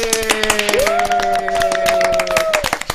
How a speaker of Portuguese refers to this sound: Vamos todos bater palmas uns aos outros. Bora lá, bater palmas uns aos outros.